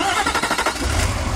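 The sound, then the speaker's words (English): A Cummins V8 turbo diesel engine in a new 2016 Nissan Titan XD pickup truck cranks with a quick series of rhythmic turnover pulses, then catches and settles into a deep, loud rumbling idle. “This is the sound of the Cummins V8 turbo diesel in the new 2016 Nissan Titan XD.”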